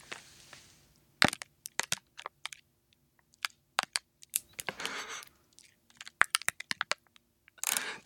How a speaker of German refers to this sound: Das war jetzt nur die äh, Plastikverpackung. Das Geräusch war abgefahren, finde ich.